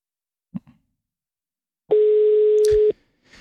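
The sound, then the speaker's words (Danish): A telephone ringing tone from a call that reaches an answering machine sounds once, a steady, fairly loud electronic tone lasting about a second, preceded by a soft click, with a faint rustle afterward and no talking. “Det er en telefonsvar. Det kan være, hun ringer tilbage.”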